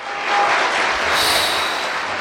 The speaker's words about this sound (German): Und weil ich das so perfekt gemacht habe, gibt es Applaus.